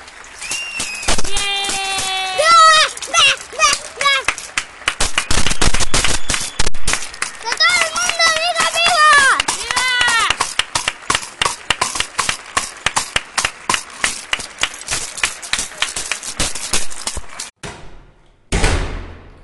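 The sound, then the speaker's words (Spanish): Neighbours applauding from their balconies for healthcare workers, pharmacists, truck drivers and cashiers, a steady crackle of many hands clapping, with whistles and cheering voices rising over it early on, before the clapping stops abruptly. “Bueno, esto que se escucha son los aplausos.”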